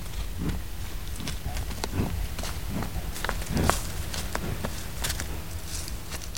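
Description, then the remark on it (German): Heavy hooves of three European bison thud at an unhurried, fairly regular pace over soft ground as they trot slowly back into the forest in the Döberitzer Heide, each step a dull low knock against a steady outdoor background hiss, no voices. “Dann trotten alle drei langsam in den weitläufigen Wald zurück.”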